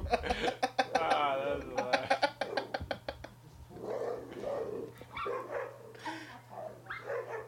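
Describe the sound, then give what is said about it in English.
A dog in a video clip from Instagram barks in a rapid, repeated burst of sharp yaps, then continues with rougher, more scattered barking and whines over a steady low electrical hum. “this dog going not want”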